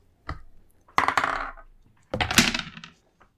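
Dice clatter across a hard tabletop in two separate rolls, each a rattling tumble lasting about a second, with a faint click before the first and no voices.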